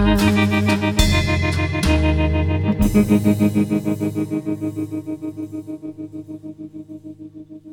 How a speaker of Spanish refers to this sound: ¿Qué les pareció? ¿Esa viola? ¿Esa, ese, eh, ese reverb? Ese, trémolo increíble, este Fender viejo.